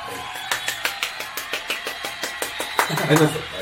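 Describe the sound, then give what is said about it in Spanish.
Steady rhythmic clapping, sharp even claps at a brisk regular beat throughout, with a brief voiced sound rising near the end. “¿Aplausos?”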